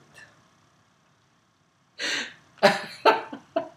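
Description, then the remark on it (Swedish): After a near-silent stretch, someone with something caught in the throat gives a rasping intake of breath, then a quick run of four sharp coughs mixed with throat clearing. No one speaks. “Nej, men jag hade någonting i halsen nyss.”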